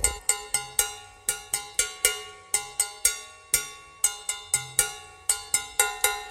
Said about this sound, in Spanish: Vamos a escuchar de vuelta al cencerro, que en inglés se llama campana de vaca, cowbell.